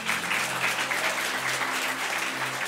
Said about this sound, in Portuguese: Amém, igreja? Você pode aplaudir Jesus bem forte? Vamos lá.